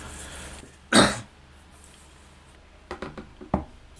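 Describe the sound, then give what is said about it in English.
A man with a dry throat clears his throat with one loud, rough burst, then follows with a few shorter, quieter rasping throat clears. No words are spoken. “So you can tell my throat is dry by the amount of times I've cleared my throat.”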